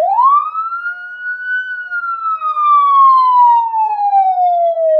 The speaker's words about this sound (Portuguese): vou tocar a sirene do, do, do Sexta Estrela